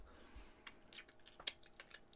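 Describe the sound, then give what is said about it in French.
Crunchy chewing of a dark-chocolate-covered peanut, a few quick crackling bites and wet squishes at an uneven pace, with no talking. “Le croquant, définitivement, c'est une. Une pinotte, mais elle est croquante sur un moyen temps.”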